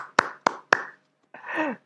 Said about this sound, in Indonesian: Kita panggil dulu Pak Husin Bagis. Eh, kita tepuk tangan untuk Pak Husin Bagis. Luar biasa ini.